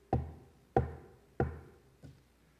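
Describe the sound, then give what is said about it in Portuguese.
Four knocks on a door in a slow, even rhythm, each a solid thud with a short ringing decay; the first three are firm and the last is noticeably softer. No voices. “Um dia ele vai bater.”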